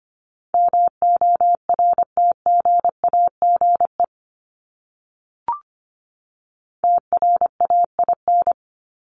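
Morse code at 25 words per minute sending words from a list of the top 1751-2000 words: a steady mid-pitched tone keyed into quick dots and dashes, sent in two bursts separated by a silent gap with one brief click.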